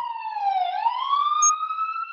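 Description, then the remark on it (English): A police siren wails steadily for a couple of seconds, its tone dipping slightly and then climbing back up, loud, with no voices over it. “siren.”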